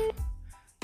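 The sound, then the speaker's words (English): A short electronic beep from an incoming call tone on a phone line during a phone conversation, as someone else tries to call; one clear loud tone at the start, followed by quiet line hiss and faint low rumbling. “Okay, I, I, think that was my phone. Somebody was trying to call.”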